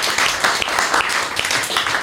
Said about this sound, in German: Nochmal einen großen Applaus